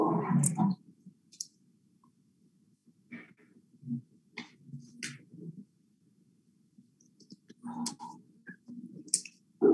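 Someone drinks water on a very hot day: a series of soft gulps and swallows with wet mouth clicks, spaced irregularly over a quiet background, with no talking.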